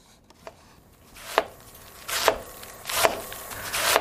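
A knife chops steadily on a cutting board, about six crisp thuds in an even rhythm that grow louder and busier toward the end, with no voices.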